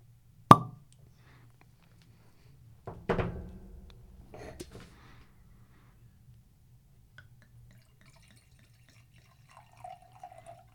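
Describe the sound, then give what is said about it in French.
A sharp cork pop rings out as a wine bottle is opened with a corkscrew made by an Alsatian artisan cutler, followed by a couple of softer thuds and clinks, then wine glugs and trickles as it is poured, over a faint low hum with no talking. “Tire-bouchon qui vient d'un magnifique artisan coutelier alsacien. Alors attention, parce que le vin, c'est. Alors je vais demander, entre cette étape et le versement, pas un bruit.”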